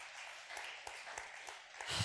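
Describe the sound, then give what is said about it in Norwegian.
A stretch of audience applause for a guest who hunts seals, a dense patter of many hands clapping at once, steady and somewhat soft, swelling slightly toward the end. “Ja, vi gir han en applaus.”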